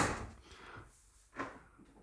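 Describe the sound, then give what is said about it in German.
A drawer slides open with rattling clatter of utensils being rummaged through to fetch a waiter's corkscrew, followed by a sharper knock or clunk as it is pulled out. No voices. “Ich hole jetzt hier das Kellnerbesteck, ich zeig ja, dir das okay.”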